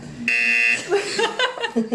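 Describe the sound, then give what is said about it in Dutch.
A game show buzzer, sounded each time an English word is said, blares once, a harsh, steady, reedy tone lasting about half a second, then gives way to people laughing and talking. “Ja, dus eh, iedere keer als we een Engels woord eh, zeggen, dan uh, moet Gaat de buzzer.”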